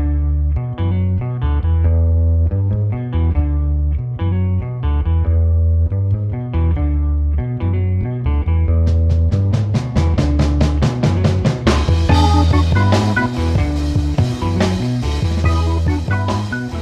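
A bouncy pop song plays loud and up close, opening with a steady keyboard and bass riff before crisp drums and a fuller band crash in about halfway through.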